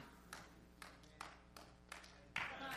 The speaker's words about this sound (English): At first, I couldn't tell if that was one of those sarcastic claps. But it picked up in the pace a little bit. I got excited over there, so that's good.